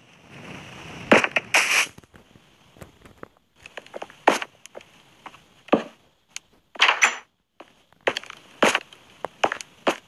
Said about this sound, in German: alles explodiert.